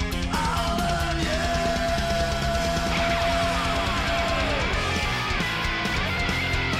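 A loud, dense stretch of heavy metal music, with thick distorted guitar chords chugging steadily under a long sustained high note that bends downward near the end.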